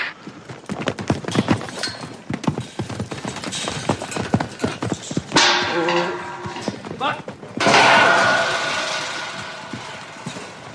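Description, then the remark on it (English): Irregular hoof stamps and thuds on hard ground as a stock horse is saddled for its first ride, with bursts of louder scuffling and commotion partway through; sparse clip-clop rhythm throughout. “And once they get into here, we're putting a saddle on them.”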